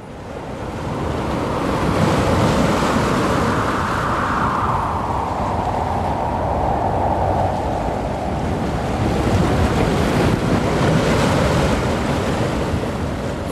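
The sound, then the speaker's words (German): A roaring stormy sea fills the scene, with huge waves surging and crashing over a ship in a continuous loud wash while strong wind howls throughout, relentless, with no voices. “Riesige Wellen sind über Schiff geschlagen.”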